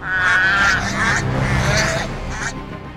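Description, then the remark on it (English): A large bird in a forest tree lets out harsh, loud screeching calls, several overlapping cries over about three seconds, fading slightly toward the end. “Then Hercules heard another screech.”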